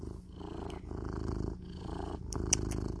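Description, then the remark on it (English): A male cat purrs steadily, a low rumbling vibration pulsing in slow rhythmic cycles of inhale and exhale, with no voices present. “And here's some kitty.”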